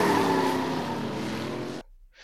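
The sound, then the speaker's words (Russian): Tires screech over a loud engine roar as a racer's car speeds out from around a corner, lasting just under two seconds, then the sound cuts off abruptly, leaving faint near-silence. “Внезапно из-за угла под оглушительный визг шин и рев мотора выехал отважный гонщик по имени Маслянщик.”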